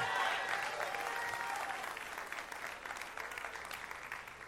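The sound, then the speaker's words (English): A church audience claps loudly and steadily, with scattered shouts of praise to God mixed into the dense wash of applause, easing off only slightly toward the end. “Give Him a shout of praise in His house today.”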